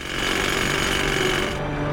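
A power chisel hammers steadily and loudly, detaching hair curlers from a machine, a dense rapid rattle of impacts that runs without pause for the full two seconds, with no voices.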